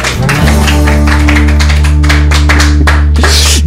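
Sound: studio applause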